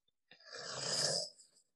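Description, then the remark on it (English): A single rough, rattling snore from sleep-disrupted breathing, lasting just over a second, with a raspy throaty vibration and a breathy hiss at its end, heard alone with no talking. “what women get, and that's still it's still sleep disrupted breathing.”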